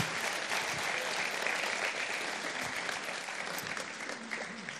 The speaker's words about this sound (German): Danke euch. Habt einen großen Applaus. Dankeschön.